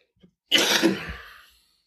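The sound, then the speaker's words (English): A single harsh, throaty cough bursts out after a faint breath, lasting about a second before trailing off into silence. No one speaks. “Excuse the coughing.”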